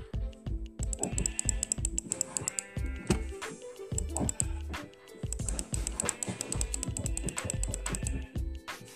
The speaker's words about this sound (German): Hm, Hey, die Schafe fressen ja.